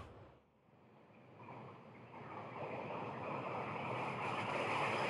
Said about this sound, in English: Right, that's brown noise. Mm-hmm. So that to me sounds like a waterfall.